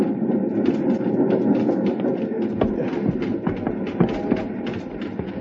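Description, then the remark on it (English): A steady rumble of a small train running over uneven rails, with irregular clanks and rattling jolts scattered throughout as the cars rock and bump over the track. No one speaks. “The little train jumping, rocking over the uneven rails.”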